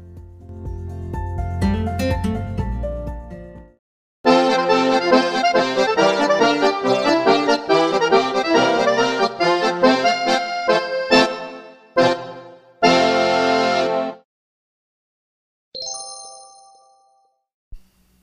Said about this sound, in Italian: Che poi è un jingle. Eh sì, un jingle o una sigla. Allora mettiamo la sigla normale e poi partiamo.